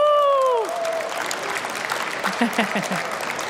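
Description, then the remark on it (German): A loud falling "woo" shout opens into an audience at a travel fair cheering and applauding, a steady wash of dense clapping with scattered whoops and voices throughout. “Wir sind auf einer Reisemesse und damit ihr auch merkt, dass wir ein sehr, sehr liebes Publikum vor uns haben, macht mal alle Lärm.”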